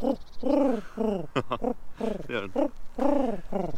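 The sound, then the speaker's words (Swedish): A person imitates a wood pigeon's cooing call with a series of soft, rhythmic hoo-hoo phrases, clear, broken briefly by a laugh and a couple of spoken words. “Eh, det är en ringduva.”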